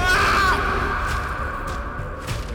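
A man lets out a loud, pained scream, sharpest at the start and then stretching into a strained, drawn-out cry for a couple of seconds, with no talking.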